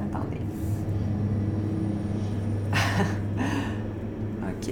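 A heavy truck rumbles past on a small rural country road, its deep engine drone steady throughout, with brief bursts of tire and air hiss midway.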